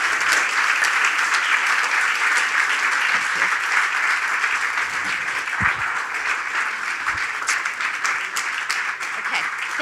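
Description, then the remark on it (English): A full round of applause from a crowd for Ryan Ulyate, a singer's engineer, steady and dense for about ten seconds, many hands clapping at once in a continuous crackling wash that tapers only slightly toward the end. “and I want to acknowledge Ryan Ulyate, who's with us, who's …'s engineer, and just have a moment to give a round of applause for all he did to help making sure … was recorded well and beloved by all of us.”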